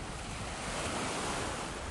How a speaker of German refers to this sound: Ähm, ich habe ja einfach heute mal Wellengeräusche aufgenommen am Meer und, äh